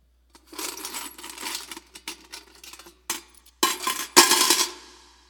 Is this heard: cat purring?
no